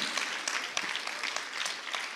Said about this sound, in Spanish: ¿Te lo cree? Le da fuertes palmas al Señor. Amén.